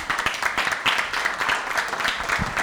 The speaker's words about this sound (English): So thank you and give yourselves a round of applause for having the effort to do this.